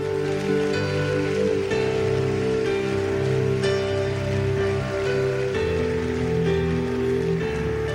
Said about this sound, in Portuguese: Aplauda o nome dele.